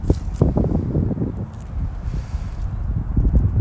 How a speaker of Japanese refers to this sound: ちょっとごめんなさい風の音が入るねあの海沿いなんで結構強風なんですよ